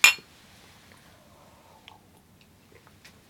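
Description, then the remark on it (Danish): Coffee cups clink together once in a bright toast that rings briefly and fades, followed by quiet shuffling and a soft knock at the very end; nobody speaks. “Skal vi lige starte med at skåle?”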